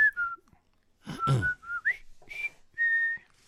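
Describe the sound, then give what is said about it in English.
Someone whistles a few short, halting notes of a march tune, broken up by a breathy, noisy burst partway through before the whistled melody resumes. “I can't whistle anymore.”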